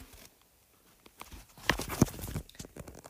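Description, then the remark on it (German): Horse hooves clip-clop in a video game as a horse is ridden to the next race, a quick, uneven series of sharp knocks, growing louder midway, with no one talking. “Dann, ähm, ja, dann reiten wir mal zum nächsten Rennen.”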